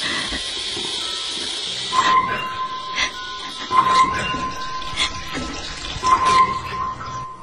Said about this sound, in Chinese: 结果这时突然停电，并且洗手间中传来了扭动水龙头的声音。